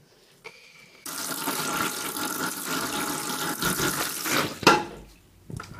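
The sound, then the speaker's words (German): Water runs steadily from a tap into a basin for several seconds as hair is rinsed out a second time under the stream, with a brief splash near the end before the flow stops; no one speaks. “Jetzt wird es nochmal ausgespült okay.”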